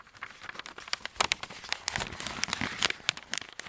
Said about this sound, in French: mais de quel bruit parlons-nous alors Ce sont par exemple du papier froissé